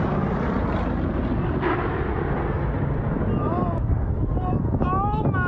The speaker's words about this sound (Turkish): Birleşik Devletleri'nin Dallas şehrinde 2. Dünya Savaşı döneminde kullanılan uçakların hava gösterisi vardı. 4000'den fazla seyirci pilotların alçak uçuşta yaptığı manevraları izliyordu.